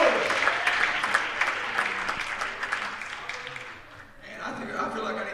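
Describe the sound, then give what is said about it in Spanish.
An audience bursts into sustained applause to God, giving thanks for the power of the Holy Spirit, a dense crackle of many hands clapping that dips briefly near the end before swelling again, with faint voices mixed underneath. “Es más temprano para aplauso a Dios y gracias a Dios para el poder del Espíritu Santo.”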